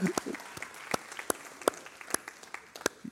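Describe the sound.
Scattered audience applause for announcements: a modest number of sharp, uneven claps popping at irregular intervals over a few seconds, fairly soft overall, with a brief murmur of voices at the start.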